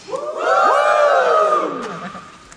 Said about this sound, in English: How are you doing out there? Everyone good? Everyone having a good celebration. Uh, do a little yell if you've seen something over the last couple of days that made you lose your mind.